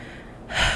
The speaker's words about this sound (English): I'm sorry about that. I had to burp. I ate some good Ethiopian food.